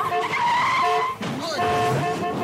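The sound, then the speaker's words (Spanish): Car tires screech in a loud, sustained, high-pitched squeal that breaks off briefly about halfway through, then resumes continuously, as a 17-year-old driver in her new car fails to brake on her first manoeuvre and crashes into the wall of her house. “no supo frenar y se estrelló contra el muro de su casa.”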